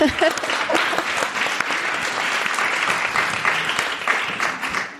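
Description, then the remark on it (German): Sustained applause from a crowd, dense steady clapping filling the whole five seconds at a fairly loud, even level, with a few voices mixed faintly underneath. “ja, auch ein Applaus dafür erstmal.”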